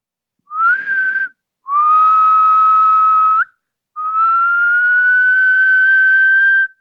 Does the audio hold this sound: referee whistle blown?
yes